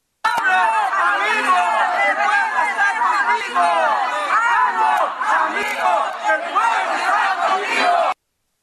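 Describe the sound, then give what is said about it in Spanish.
A dense crowd shouts and yells continuously for several seconds, many overlapping voices chanting and calling out loudly, as supporters of Mexican President Andrés Manuel López Obrador and members of the opposition group FRENA shout at each other before his arrival at the UN. “Afortunadamente, pues no pasó mayores, solamente fueron algunos gritos entre los eh, simpatizantes del presidente y, y, también los de Frena”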